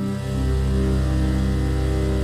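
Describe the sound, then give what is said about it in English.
A sustained electronic organ tone with a slight wavering, theremin-like quality, made by moving a ring along a wire, holding steady and fairly loud for a couple of seconds with no voices. “it sounds like a theremin mixed with sort of an, a really light, airy kind of organ”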